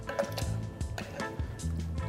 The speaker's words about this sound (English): Um, take your muddler, muddle up those blueberries. It's a nice little press, just get those juices out.